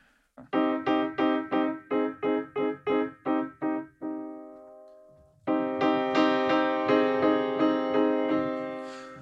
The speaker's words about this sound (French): Donc là, ça c'est un son de piano assez, on va dire, classique.